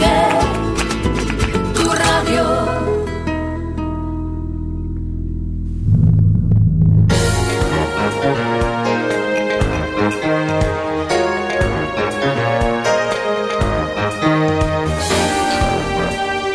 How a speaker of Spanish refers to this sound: hemos escuchado la sintonía del eh, cafelito